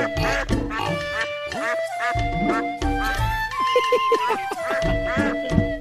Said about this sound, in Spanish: Unos patos